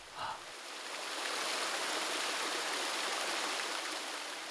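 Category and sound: nature, waterfall rushing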